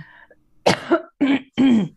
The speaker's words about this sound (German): Es, ist, es ist Hustzeit. genau, es ist leider Erkältungszeit.